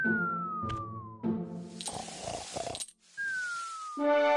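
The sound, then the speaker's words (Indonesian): Bright metallic clinks of giant gold coins ring out a few times, mixed with cartoonish descending whistle-like tones and bursts of hissing noise, fairly loud, with no talking. “Wah, koin emas raksasa!”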